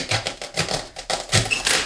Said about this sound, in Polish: Chyba mi się nie zmieści. Taka długa panatka, więc przetnę ją sobie na pół